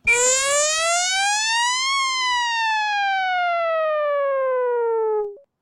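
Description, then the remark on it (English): A loud goal siren from the video game NHL 94 wails on its own, its buzzy tone climbing for about two seconds, then sliding slowly downward for several more before cutting off. “that's from NHL 94. That is the exact yes. siren from NHL 94 for those of you that don't know.”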